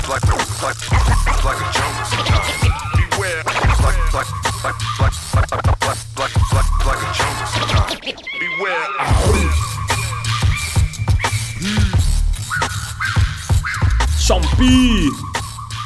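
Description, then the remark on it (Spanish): A loud hip-hop track from a rapper's first solo album, with a heavy, thumping bass beat and rapid rapped vocals over it, briefly dropping out for a moment partway through before the beat returns. “Sonando aquí en tracción con …, recordando su primer disco solista.”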